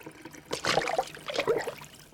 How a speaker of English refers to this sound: He locked the door behind him and splashed his face with water from the sink.